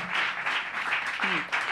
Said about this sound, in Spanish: Un aplauso, de verdad.